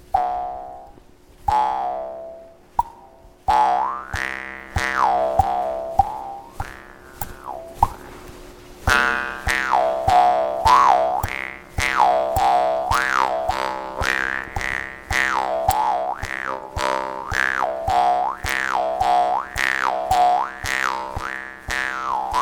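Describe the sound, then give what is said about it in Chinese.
A mouth harp twangs over a steady buzzing drone, starting with a few separate plucks, then settling into a fast, even rhythm with a wah-like resonance sliding up and down. “好，老师是有准备几个，本来要给你们吹，但是后面我想一想，为了疫情哦，所以对对，因为我有我有把我们学校一盒的那个口簧琴都带来，但是后面想一想啊，还是不要好了。”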